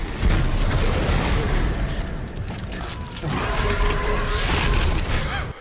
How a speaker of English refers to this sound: Ugh rips Hammond's leg straight the fuck off. Did you hear that noise? Ew, that was so nasty.